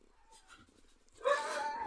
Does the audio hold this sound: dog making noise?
yes